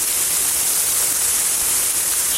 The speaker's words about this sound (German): Ich, äh, Wasserfontänen. Das hat gestern perfekt funktioniert am Test.